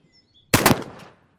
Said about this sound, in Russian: Грохот выстрела заставил всех в комнате вздрогнуть. Императрица вскрикнула. Пуля пролетела совсем рядом с головой Анастасии и застряла в оконной раме.